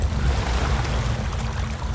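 A river's water laps and gurgles steadily against a wooden boat dock, a continuous wash with a deep low rumble and soft irregular splashes, no voices present.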